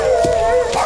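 wolves howling

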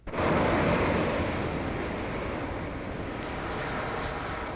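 rushing river current

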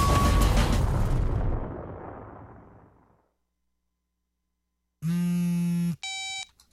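self-destruct explosion sound effect

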